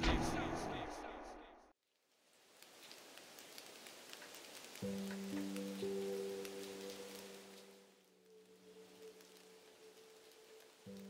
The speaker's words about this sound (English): I am sitting by my window, watching the rain outside and reveling in its beauty.